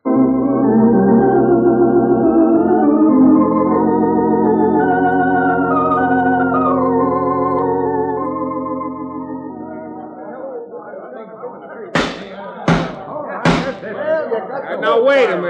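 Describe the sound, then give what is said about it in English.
A crowd of people yelling all at once, a loud, dense clamor of overlapping voices that gradually dies down, then a few sharp, sudden bangs ring out near the end. “Why don't you folks listen instead of yelling?”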